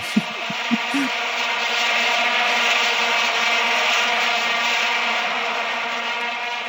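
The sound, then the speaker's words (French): A steady, buzzing drone of vuvuzela trumpets, one continuous brassy tone holding a single low pitch with rich overtones, sounding loud and unbroken for several seconds after a few short blasts. “Euh, J'espère qu'en post-prod, ils vont nous rajouter de la vous-vous-et-là en fond, tu vois.”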